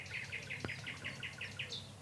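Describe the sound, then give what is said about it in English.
A nightingale sings in reply to another nightingale, a quick run of about ten evenly spaced, repeated chirping notes over a low, steady background hum, with one sharp click partway through. “and there's another one answering it.”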